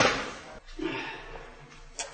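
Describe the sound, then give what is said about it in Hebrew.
A booklet drops to the floor with a papery rustle and soft slap, followed by a brief shuffling sound and a second small thud about two seconds later. No one speaks. “נפל. טוב, זה, זה החוברת.”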